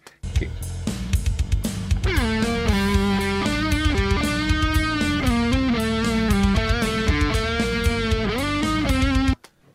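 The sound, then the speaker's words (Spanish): A distorted electric guitar played through effects plays a sustained, singing lead melody with bent notes over a steady drum and backing groove. It starts after a short intro and stays loud and up front until it cuts off. “Va viejito, pues Vamos a hacer algo con tu tono líder.”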